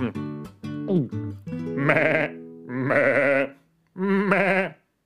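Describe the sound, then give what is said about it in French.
Three loud, quavering sheep bleats, each lasting about half a second with short gaps between, preceded by a few brief, choppy tonal calls at the start. “Il prend un autre cri, il le met dans sa bouche. Hmm. Est-ce que ça va pour un mouton, ça”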